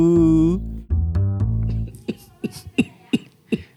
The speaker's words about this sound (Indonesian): udah, udah kesekian kalinya dibuka dengan batuk.